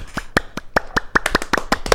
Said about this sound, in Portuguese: se eu soubesse colocar palminhas, eu colocaria palminhas agora.